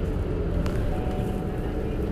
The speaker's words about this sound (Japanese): 今これをバスの中から撮ってます